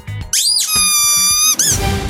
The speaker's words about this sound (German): wenn es quietscht, dann geht's los.